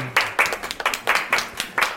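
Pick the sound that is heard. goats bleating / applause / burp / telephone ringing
applause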